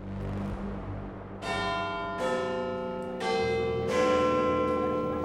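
Big Ben's bells at the Palace of Westminster in London chime at 2:30 pm: four overlapping strikes about a second apart, each bright tone ringing on and building into a sustained, resonant wash, with no voices.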